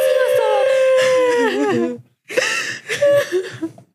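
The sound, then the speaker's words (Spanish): A voice imitates a girl of about 10 crying loudly, a long wavering wail that breaks into shaky sobs, then after a short pause, more gasping, hiccupping sobs, with no other sounds. “Llorando, llorando, estaba llorando.”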